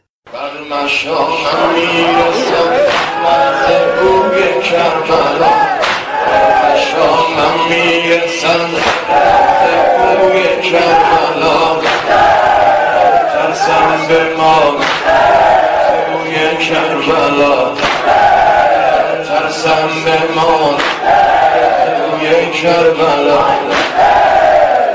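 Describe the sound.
A mourning lament is chanted loudly and continuously by voices aboard an airplane, started by a passenger seated in the rear section, with a steady rhythmic pulse and sustained, wavering melodic lines filling the whole stretch, sounding crowd-like.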